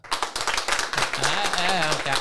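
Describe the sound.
A live audience claps hands in a dense, steady burst of applause lasting a couple of seconds, clapping to show they do not think Halloween is anything special, while a voice talks over the second half of the clapping.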